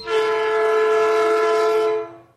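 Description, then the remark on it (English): A loud, steady train horn sound effect, added in during editing, blares for about two seconds in one sustained chord, then cuts off quickly. No voices accompany it. “Yeah, we didn't have a train today, did we? I had to add that one in just so we could have the train.”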